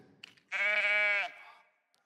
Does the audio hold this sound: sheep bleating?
yes